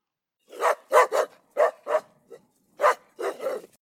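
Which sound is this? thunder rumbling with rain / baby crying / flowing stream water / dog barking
dog barking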